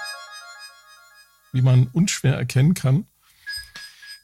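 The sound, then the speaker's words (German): Bright, metallic tones from FM synthesis with a bell-like, glassy ring sustain for over a second, then a man speaks briefly before another short metallic FM synth tone returns at moderate volume. “Das, was ihr hier hört, ist FM-Synthese.”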